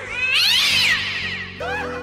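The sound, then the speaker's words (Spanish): A cat named Satanás lets out a loud, drawn-out yowling meow, then a shorter second meow right after, with no one talking. “¿Y su gato? ¡Satanás!”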